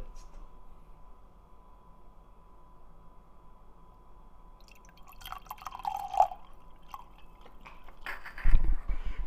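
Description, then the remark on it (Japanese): Wine poured into a glass close up, a soft gurgling, trickling stream starting after a quiet pause and building, with a brief louder clunk near the end. “本当に久しぶりに このワインを注ぐ音がちょっと ASMR になるの遠いかじゃあちょっと近くやったね”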